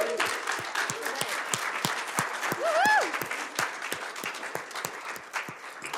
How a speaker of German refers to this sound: Hey, als erstes können wir doch gerne mal einen riesen Applaus machen für unsere Hammerband. Ich finde, sie machen das so gut.